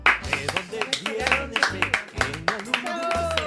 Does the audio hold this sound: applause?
yes